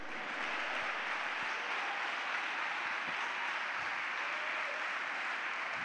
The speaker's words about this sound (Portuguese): Se alguém crê, se alguém quer, aplauda e brade ao Senhor.